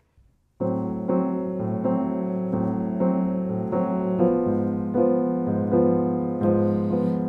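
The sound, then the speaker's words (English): Piano chords played as shell voicings (root with sixth or seventh and third) in a steady quarter-note pulse without a bass note, each sparse voicing struck evenly and sustained into the next, moderately loud with no voices present. “Um, basically, the technique work like this uh, with shell voicings, like with the root six and third, or root seven and third, and um, would sound something like this.”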